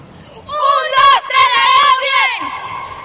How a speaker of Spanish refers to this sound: que hagan el grito de guerra del aredo que hacen